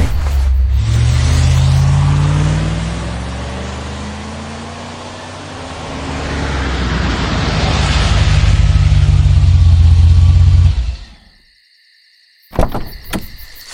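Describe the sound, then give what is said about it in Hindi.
A car engine revs and accelerates, its pitch rising and falling through the gears as the vehicle pulls away, loud for about ten seconds before cutting off abruptly. “गाड़ी बढ़ा”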